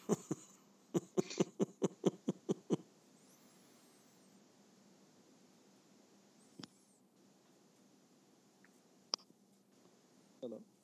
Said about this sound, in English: We could actually hear you unplugging the mic.